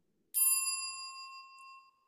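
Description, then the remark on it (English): A single bright bell ding rings out clearly on its own, its metallic tone ringing and slowly fading over about a second and a half. “If you haven't already, please make sure to like, subscribe, and click the notification bell.”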